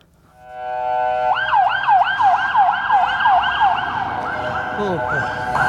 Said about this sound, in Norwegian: Intervjuet blir avbrutt av en ambulanse som fyker forbi.